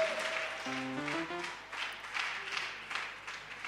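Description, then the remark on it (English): A crowd applauds steadily throughout at an evening faith testimony gathering, a dense wash of many hands clapping, with a few sustained musical tones sounding underneath near the start. “Why don't we put our hands together and welcome Victoria?”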